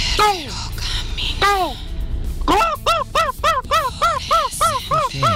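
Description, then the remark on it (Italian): A person imitates a seagull's call with loud, nasal cries, starting with a couple of drawn-out wails, then breaking into a rapid, rhythmic series of short yelping calls. “Regà, vi faccio l'imitazione del gabbiano.”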